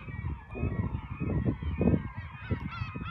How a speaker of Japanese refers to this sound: すごい聞こえますかこのカモメの大合唱です。明るくなって喜んでますよね明らかに。